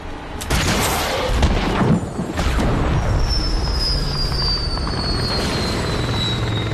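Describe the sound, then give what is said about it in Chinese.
A helicopter sent by enemy reinforcements flies during a gunfight, with a heavy, steady rotor roar and dense low chopping rumble throughout, plus a thin high whine that slowly drifts downward in pitch. No one speaks. “敌人阵仗搞得挺大，他们也派出一架直升机，长毛的火力对空完全不敌。”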